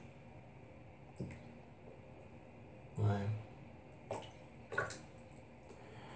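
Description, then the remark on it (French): Soft water lapping and a few scattered drips and splashes in a bathtub, irregular and fairly quiet, with a brief spoken word from a voice. “de 30 secondes et des clapotis d'eau.”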